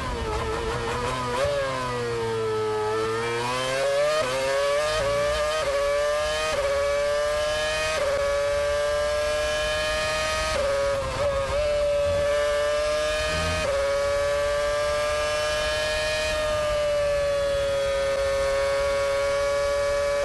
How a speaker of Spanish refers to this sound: Eh, mucho rato de a fondo, ¿no? He escuchado yo muy mal, pero vamos, he oído mucho, mucho, acelerar ahí, mucho pedal.